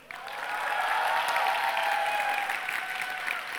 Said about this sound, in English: Uh, it is her birthday, so let's clap it up for her.